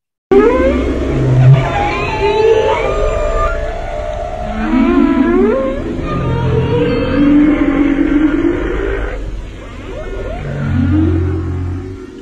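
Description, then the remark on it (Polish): A humpback whale sings a long series of moaning, rising and falling calls with whooping upsweeps and low groans, steady and fairly loud, with no voices. “można poznać, e, kiedy e, ich śpiewy zostały nagrane, bo w następnym sezonie będą śpiewały już troszeczkę coś innego.”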